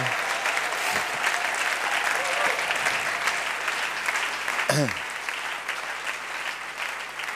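An audience claps steadily for several seconds, a dense, sustained wash of applause at fairly even loudness, with a brief voice or whoop rising out of it partway through.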